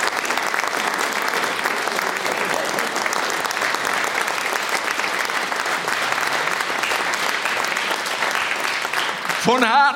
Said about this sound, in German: Applaus, schönen Dank.